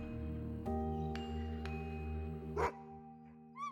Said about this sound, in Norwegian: Vel, det er ikke så veldig rart at bjeffing stort sett er uønska. Man blir jo helt enkelt gal av å være i samme rom som en bjeffende hund. Lyden skjærer i ørene.